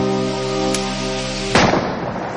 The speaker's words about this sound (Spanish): Escucha un disparo en el bosque.